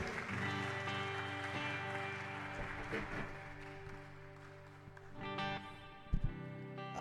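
A church audience applauds during a service in a steady, dense wash of clapping over sustained keyboard chords. The clapping thins out toward the end, leaving the music and a couple of soft thumps.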